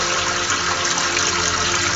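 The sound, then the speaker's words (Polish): A steady rush of liquid pouring, hissing continuously for the whole moment with no pauses and no voices, as liquid drips onto a transmitter and a phone. “Już mi kurde kapnęło na nadajnik.”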